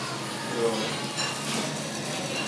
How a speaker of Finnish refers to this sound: Keittiöstä kuuluu vai jotain astioiden kaatumista.